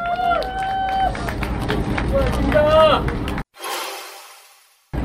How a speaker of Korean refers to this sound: 자 우리 김한매 대표님께 다시 한번 응원의 박수 부탁드리겠습니다.